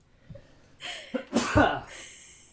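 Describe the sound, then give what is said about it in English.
A single sneeze: a short, rising intake of breath followed by a sharp, explosive burst that trails off quickly, with no talking around it. “Bless you.”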